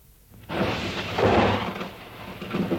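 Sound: thunder rumbling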